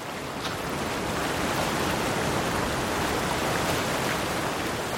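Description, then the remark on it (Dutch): A steady, full rush of cool wind blowing across an open tropical rocky shoreline, loud, with a constant hiss and low rumble and no voices. “Oh, er waait hier een heerlijk koel cool briesje.”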